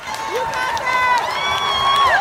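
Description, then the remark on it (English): Classmates cheer loudly and continuously at a Florida International University graduation as a graduate using an exoskeleton walks across the stage, with overlapping shouts and high whoops rising above a steady roar of voices for a couple of seconds. “Just watch as his classmates cheer him on.”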